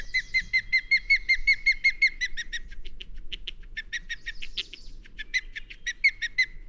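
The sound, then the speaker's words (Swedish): A fish-hunting raptor's weak, thin whistling contact calls repeat in quick, rhythmic series of short high notes, clear, with no talking and only a faint low rumble beneath. “Men ja, den har ett lite vekt läte.”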